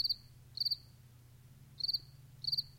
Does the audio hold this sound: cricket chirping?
yes